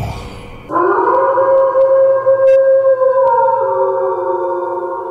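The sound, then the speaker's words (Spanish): A long, sustained wolf howl sound effect rises sharply and holds steady for several seconds, loud, with a smooth, slightly wavering tone and no talking over it. “Y ese efectillo naco que de verdad.”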